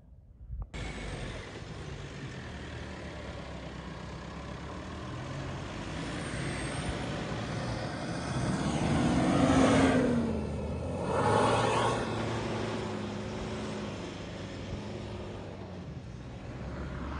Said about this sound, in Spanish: No, the peace. Listen, the silence. Sí, no se oye nada. Más que el coche.